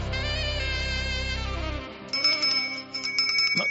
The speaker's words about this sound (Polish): Kolejny dzwonek, Obwieszczę następne zajęcia, specjalne wydanie Reakcji 24.